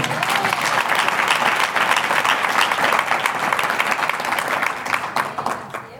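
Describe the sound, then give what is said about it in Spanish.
Steady applause from a crowd, a round of applause to the Lord, fills the whole stretch, a dense, even patter of many hands clapping at full volume before thinning slightly toward the end. “Gracias por este un aplauso al Señor.”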